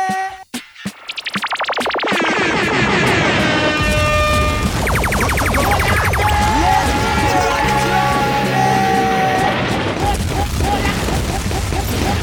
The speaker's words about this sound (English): Let me hear a drum play.